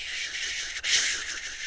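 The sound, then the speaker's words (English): A chacapa, a bundle of dry leaves used as an old healing and cleansing tool, is shaken steadily, making a continuous hissing rustle like wind and rain, with a brief pause and then a fuller swell. No one speaks. “it brings the leaves, the rain, and the wind of the jungle at the same time and then it creates the environment plus the icaros to be in the space.”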